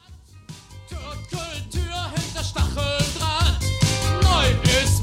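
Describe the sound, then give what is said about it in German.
A German new wave song plays loud, with a driving, steady electronic beat, pulsing bass and bright synth textures under wavering vocal lines that fill the whole stretch. “haben den Titel nochmal aufgenommen und auch der ist ein richtig großer Knaller aus dieser Zeit. Und wir hören den Titel ….”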